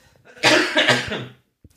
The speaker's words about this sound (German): Und ein Moment, ich muss mal ganz kurz husten.